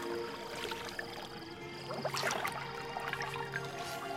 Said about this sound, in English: she splashed some water at him.